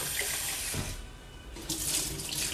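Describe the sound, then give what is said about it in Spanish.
Water runs steadily from a tap with a broad hissing splash, shifting in tone as it pours into a bowl while rice is being rinsed, with no one speaking. “Y una vez más le vamos a colocar agua para que salga blanco.”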